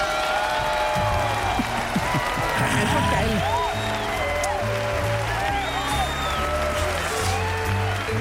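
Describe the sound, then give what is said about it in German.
A crowd of fans cheers and applauds steadily for several seconds, a dense wash of clapping with high whoops and shouts rising through it, while a voice speaks briefly over the noise. “ja, Jubel halt.”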